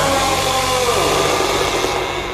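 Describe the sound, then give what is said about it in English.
A chainsaw engine idles loudly and steadily for a couple of seconds, a buzzing, rattling drone whose pitch dips slightly partway through. No one speaks. “And I take it you know Chainsaw.”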